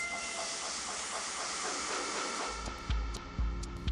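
A steam train hisses steadily along its rails, a broad wash of noise joined midway by deep rhythmic chugs and clanks as it rolls on, growing louder.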